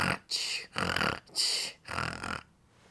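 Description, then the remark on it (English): A person makes rapid, exaggerated fake snoring noises with their voice: five quick, breathy rasping snorts in a fast rhythm, fairly loud, with no other talking. “Haha, so funny because like I was like fake snoring like really fast.”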